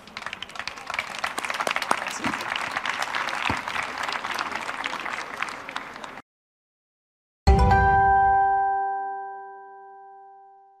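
An audience at the UPE 13 forum, la croisée des mondes, applauds steadily for about six seconds, a dense wash of clapping. After a brief silence, a bright chime rings out with sustained tonal partials and slowly fades.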